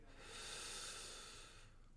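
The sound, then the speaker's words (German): A single long, deep breath taken through the mouth during a guided breathing exercise, an airy rushing sound that swells and fades over about a second and a half, with no talking. “Atmen Sie ein, ganz tief.”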